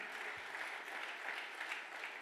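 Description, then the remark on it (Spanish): A church audience claps steadily, a dense, even wash of many hands applauding at a consistent level throughout, with no voices standing out. “Del otro aplauso. Vamos, iglesia.”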